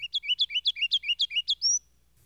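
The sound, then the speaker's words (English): A kinglet sings a quick, evenly paced run of about a dozen bright, high chirping notes, then closes with a rising drawn-out whistle, clear with no other sounds. “Beginning in a fine, round, needle like note and rising into a full, sustained warble. A strain, on the whole, remarkably exquisite and pleasing, the singer being, all the while, busy as a bee catching some kind of insects.”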